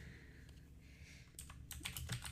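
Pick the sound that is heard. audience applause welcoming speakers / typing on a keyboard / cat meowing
typing on a keyboard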